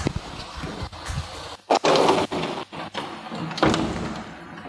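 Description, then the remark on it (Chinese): Steady heavy rain, which has suddenly grown heavy, hisses while a window rattles and slides along its track as it is being closed because of the rain noise, with several sharp thuds and knocks before it bangs shut and the rain noise softens. “哇，这个雨突然下大了，这个声音有点大，我去把窗关一下。”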